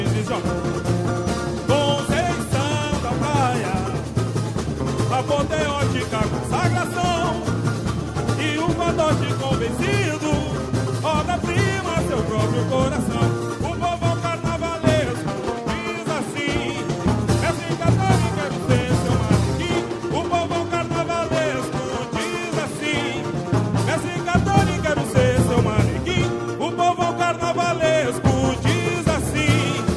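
A samba song plays loud and steady from start to finish, with dense full-band instrumentation, busy percussion and singing throughout. Nobody talks over it.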